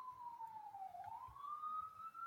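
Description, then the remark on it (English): An emergency siren wails in a New York City street, its pitch sliding down and then rising again in one long sweep over a low, steady rumble of street noise. “a siren in the background because I live in New York City.”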